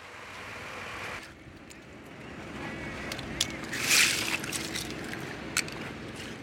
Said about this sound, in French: Les bateaux de Palourde rentrent au port de Scardovari. Nous sommes dans le delta du Pô en Italie